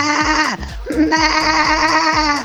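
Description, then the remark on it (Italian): A person imitates a sheep's bleat with a sustained, wavering vocal tone, broken by a short pause before a second, longer quavering bleat, loud. “No, ma guardate come faccio la pecora.”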